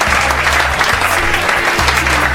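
A dense round of applause from a standing audience welcoming a guest on the Rádio Real FM programme Peladeiros, steady clapping filling the whole clip loudly, with a low hum-like tone pulsing underneath in segments.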